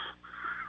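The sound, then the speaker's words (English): An English bulldog lets out a short, raspy wheezing snort, a single breathy grunt lasting under a second, fairly loud with no talking over it. “Uh, wait, was that a dog in the background?”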